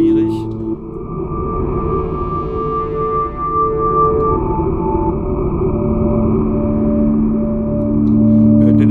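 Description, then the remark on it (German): A sustained wavetable synthesizer drone with an airy, breathy noise layered through it, holding steady and fairly loud for about nine seconds as the pitched notes shift slowly. “Wo man halt ein Noise hört, hier, der so haucht.”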